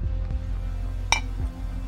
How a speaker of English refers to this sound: Captain Krell and Captain Sindwan poured themselves each a generous finger of brandy and clinked their glasses